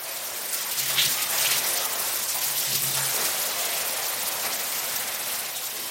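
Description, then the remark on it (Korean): Shower water runs in a bathroom in a steady, dense hiss that fills the whole clip, loud, with no pauses and no voices. “샤워기의 물소리는 폭포처럼 거세게 들렸다.”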